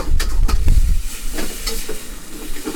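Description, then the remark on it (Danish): Food sizzles and hisses in a wok after about a quarter decilitre of water is added, a steady crackling fry with scraping stirs and bursts of steam, loud throughout with no talking. “så har han også taget lidt vand herud. Ja, så, lige... for lige at komme lidt vand på.”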